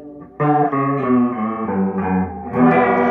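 An electric guitar run through a heavy modulation effect in an effects pedal demo plays a short sequence of sustained, shimmering chords, loud with no voices, each chord changing about every half second.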